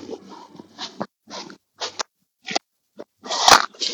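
footsteps crunching on snow

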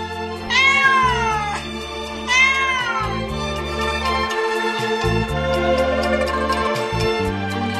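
cat meowing

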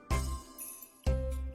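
doorbell ding-dong

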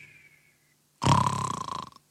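loud snoring

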